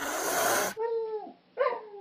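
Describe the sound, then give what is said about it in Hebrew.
A voice imitates a jaguar's sudden loud cat cry aimed at the dog Ringo: a harsh, breathy hiss bursts out first, then two strained, whining yowls follow loudly, with a short gap between them. “ואז היגואר עושה על רינגו מין קול פתאומי כזה חזק של חתולים”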